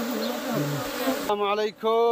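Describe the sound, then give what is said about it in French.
A dense, continuous buzzing of thousands of Yemeni honeybees at their hives in Yemen, a steady droning hum with shifting pitch, briefly dipping before resuming at full loudness. “Voici les abeilles yéménites, productrices du meilleur miel du monde.”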